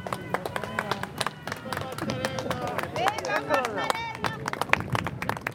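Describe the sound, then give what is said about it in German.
Residents of the Corviale clap steadily for the visiting president in scattered, overlapping hand claps while many voices chatter and call out together, the applause friendly and moderate rather than thunderous, continuing throughout. “Die Bewohner spenden zwar freundlichen Applaus, der Präsident ist im Volk beliebt, aber sie lassen sich nicht täuschen.”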